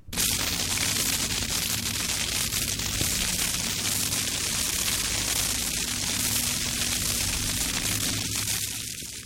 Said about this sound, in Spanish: Al empezar el cuento del frijolito se habla del desagüe del lavadero. Rocío pide allí un efecto de agua que corre y Leonardo, su asistente, lo pone.